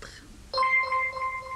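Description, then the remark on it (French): A phone's text message alert sounds once, a bright electronic chime with a crisp start and a ringing tone that fades after about a second, heard clearly with no talking. “J'ai une notification, là, comme c'est un message normal.”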